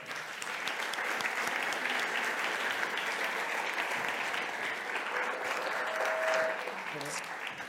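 An audience applauds steadily for several seconds, a dense, even wash of many hands clapping at constant loudness with a few scattered cheers.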